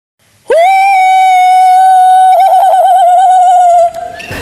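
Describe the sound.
A woman, in place of singing, lets out one long, loud, sustained howl that holds steady for about three seconds, wavering slightly near the end, in playful imitation of an animal, followed by a brief breathy tail.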